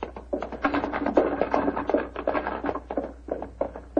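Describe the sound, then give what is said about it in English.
Horses' hooves clop in a quick, steady rhythm of many hard taps, moderately loud, with a low rumble underneath as a carriage moves off. “Let's get these old horses going.”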